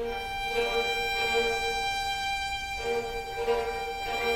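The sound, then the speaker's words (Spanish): Orchestral strings play fast, buzzing tremolo figures that imitate swarming flies, a steady droning texture with swelling accents, at moderate volume and with no voices. “Las moscas y moscones son este que suena ahora.”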